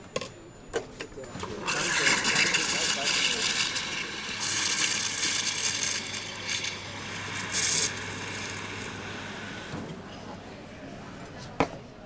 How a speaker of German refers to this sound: Und jetzt äh, mache ich gleich die Hafermilch warm